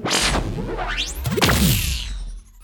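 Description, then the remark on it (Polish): A fast, loud whoosh with an added Doppler effect sweeps past with a sliding pitch, rising then dropping as it passes, layered with swishing streaks before fading out into near silence. “Więc dorzuciłam też Dopplera na tym, efekt Dopplera, tak?”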